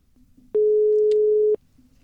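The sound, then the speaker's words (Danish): A single steady telephone ringback tone of an outgoing call to Peter Skorp, group chairman of Dansk Folkeparti, made on the Radio Loud programme, sounds for about a second, loud and clear, with quiet background before and after it. “Jamen, øh, jeg synes bare, vi skal prøve at ringe til Peter.”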